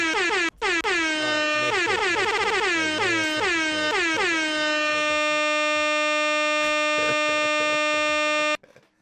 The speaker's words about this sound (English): Get some air horns on that